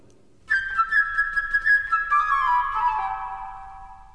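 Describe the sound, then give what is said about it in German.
A bright flute melody with quick chirping trills and fluttering runs imitates a sparrow's twitter, clear, settling into a long held high note at the end. “Den frechen kleinen Spatz stellt die zwitschernde Flöte dar,”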